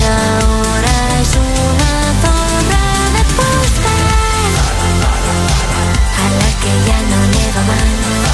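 A loud, steady stretch of a pop song with a driving beat, bass and layered melodic synths or vocals, played without any talking over it.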